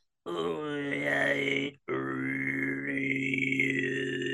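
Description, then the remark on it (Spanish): Loud nasal Mongolian-style throat singing: a buzzing low drone with a bright whistling overtone sliding above it, sung in two sustained breaths separated by a brief pause. “Si queremos mandarla como si fuera un poco más mongólica, es un poco más nasal.”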